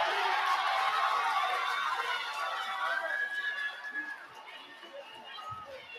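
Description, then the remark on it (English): An arena crowd at a basketball game erupts in a loud, dense roar of mixed voices reacting to a foul call after Covington's dunk ties the game, swelling at first and then gradually fading over several seconds. “George Clooney says half 23 the crowd likes it, the other half hates it.”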